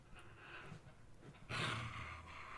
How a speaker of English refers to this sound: I am so sorry if you can hear my dog. He's so aggressive right now.